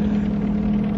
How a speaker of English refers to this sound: No, I'm not. I mean, yes, I am. That, that's a plane. There it is. Hey, help me. They'll never hear me. Hey, they didn't even see me.